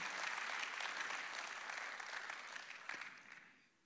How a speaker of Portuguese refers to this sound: Vamos aplaudir! Aê, amém!